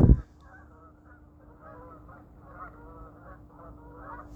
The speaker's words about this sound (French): Je peux vous entendez les oies, là.